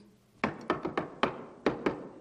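Seven sharp knocks on wood in an uneven rhythm, some grouped in quick succession, close and fairly loud with short hollow decays and no talking.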